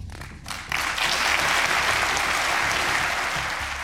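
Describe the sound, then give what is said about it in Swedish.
The Swedish Riksdag bursts into sustained, loud applause as Moderate Andreas Norlén is re-elected speaker by a unanimous parliament, a dense wash of clapping that starts abruptly after a brief quieter moment and carries on steadily without any speech. “För så lät det för en stund sedan när moderaten Andreas Norlén valdes till talman på nytt av en enig riksdag.”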